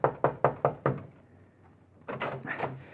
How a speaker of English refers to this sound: And you pray there's still someone in the copy room as you pound on the door.